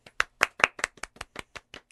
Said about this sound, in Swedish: Välkommen! En applåd!